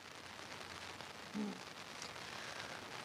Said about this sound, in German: Ja, also der Regen hat gerade wieder eingesetzt, vielleicht vor 20 Minuten um besonders heftig. Und das hatte ja auch der Wetterdienst vorhergesagt, dass es in der Nacht und am frühen Morgen zu heftigsten Niederschlägen kommen würde